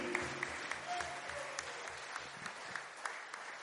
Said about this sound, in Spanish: Vamos a darle otra ofrenda de palmas a nuestro Dios.